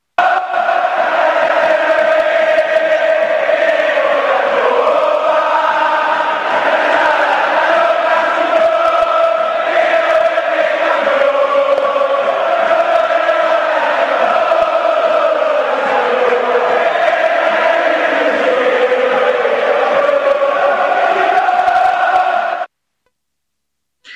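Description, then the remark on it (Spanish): A large crowd of San Lorenzo football fans chants "Dale San Loré, queremos la copa" loudly and continuously in a street celebration in San Juan y Boedo in the early morning hours, voices blending into a dense roar with shouts and cheers, before cutting off abruptly near the end. “Y así se festejó Dale San Loré, queremos la copa hasta altas horas de la madrugada en San Juan y Boedo, una celebración que disfrutamos cuervos y cuervas y que después se iba a trasladar a nuevos logros deportivos.”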